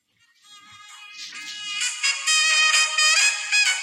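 Bright, blaring trumpet music, the viral walk-out song of relief pitcher Edwin Díaz, plays through a small phone speaker, starting softly and swelling into a loud, sustained brassy fanfare, with no voices over it.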